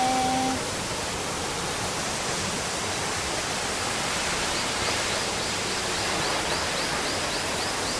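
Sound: waterfall roaring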